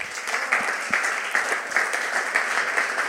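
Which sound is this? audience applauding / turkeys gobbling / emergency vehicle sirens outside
audience applauding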